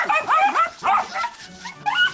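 A small dog barks several times in quick succession, sharp high-pitched yaps, fairly loud, with brief pauses between bursts.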